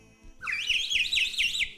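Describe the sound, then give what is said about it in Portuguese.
A cheap plastic 'vai e vem' party blowout whistle is blown with a bright, warbling tone that rises and wobbles in repeated pulses, loud and alone for about a second and a half. “Comprei um apito de. de, de, de... Apito vai e vem, R$3,99.”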